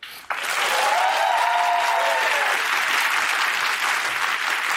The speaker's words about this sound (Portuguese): Vamos aplaudir o diretor do documentário que está aqui